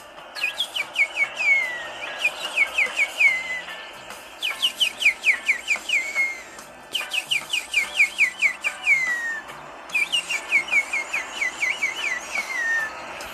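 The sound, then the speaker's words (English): A person whistles an imitation of tropical birds singing in the trees, repeating bursts of rapid, descending chirpy notes in several phrases, fairly loud over a faint background hiss. No talking. “And I'm gonna try to attempt to mimic what the birds were, were doing while they are in the trees.”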